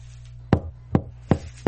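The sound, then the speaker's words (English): Four firm knocks on a front door, evenly spaced, each a sharp thud against a low steady hum in the background. “When someone knocks on your front door, I was sitting here just minding my own business.”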